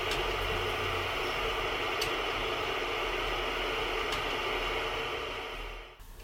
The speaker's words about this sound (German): Dabei hat jedes Bauelement einen anderen Sound, wie in der folgenden Auswahl von Testsequenzen zu hören ist. Weißes Rauschen Z-Diode 2,7 Volt.